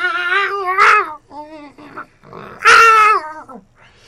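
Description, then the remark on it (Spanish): Drawn-out, wavering cat yowls rise and fall in a series of whiny cries at night, two of them sharply louder and shriller, with no talking. “Entonces empezó el concierto. En la casa no hay vecinos con gatos, al menos no en la cuadra, pero los debe haber en la colonia y eso le bastó al hijo de su puta madre para pasarse las noches.”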